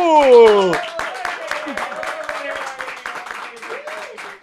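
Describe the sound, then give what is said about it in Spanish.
A short burst of hand clapping welcoming a guest from Argentina to a small studio in Puerto Rico for the YouTube channel Molusco TV, steady and fairly loud, with a rising and falling whoop or cheer sliding through the opening moment before the claps carry on alone. “La aplaudimos, la celebramos le damos la bienvenida aquí en este canal de YouTube que se llama Molusco TV.”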